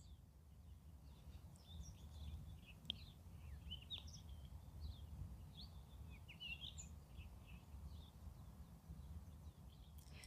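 Birds chirp and sing outdoors in nature in Cape Town, South Africa, in a steady, overlapping chorus of short, high calls over a low rumble of wind or background noise, with no one talking.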